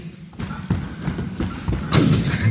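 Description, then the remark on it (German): A steady series of footsteps walking away, about half a dozen thudding treads at an even walking pace, moderately loud, with no voices over them. “Jetzt Schritte weg.”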